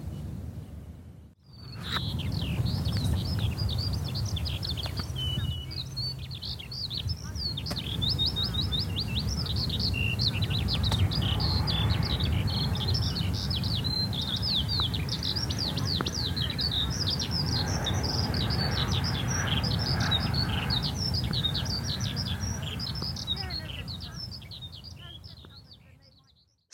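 A skylark singing beside the sea on the Dorset coast pours out a continuous, rapid stream of high, twittering song for almost half a minute, carrying clearly over a steady low roar in the background.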